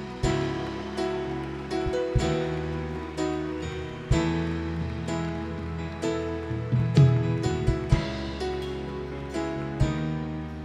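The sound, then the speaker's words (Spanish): An audience applauds God in a steady, dense wash of clapping, mixed with sustained keyboard-like chords that shift every couple of seconds underneath. No one speaks over it. “Sí, dale un fuerte, fuerte aplauso a Dios.”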